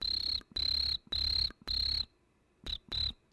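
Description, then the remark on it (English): A person imitates a chirping cricket with shrill, buzzy trills: four steady bursts in a row, a short pause, then two quicker chirps, fairly loud with no talking. “It's just he's just a little cricket, guys.”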